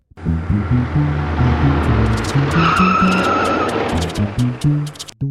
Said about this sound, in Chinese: 最后才开着货车去上班。